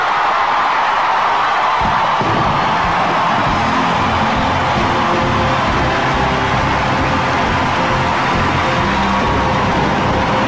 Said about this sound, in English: the crowd gave Miscavige an ovation that lasted more than 10 minutes, right?